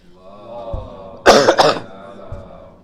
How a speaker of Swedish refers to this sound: När ni ser mig hosta, skicka salawat. Det är tecken.